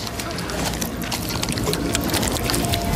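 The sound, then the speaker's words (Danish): Loud, messy eating of sushi by a woman: continuous wet, squelchy chewing and slurping noises that run steadily for a few seconds without pause. “Hvorfor skal hun, men hvorfor skal hun også spise så ulækkert? Prøv at høre lyden.”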